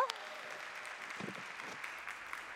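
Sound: audience applause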